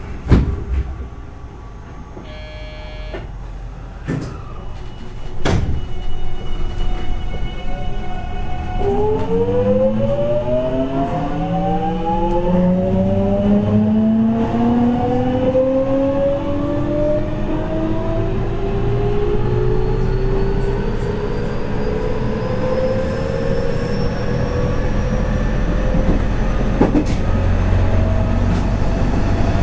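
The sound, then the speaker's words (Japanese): The doors of a departing JR 207 series commuter train at platform 3 chime with short beeps and shut with a thud, then the electric motors whine upward in rising pitch as the local train accelerates away over a steady rumble. “3番乗り場から普通熊行きが発車します。ドアを閉めます。”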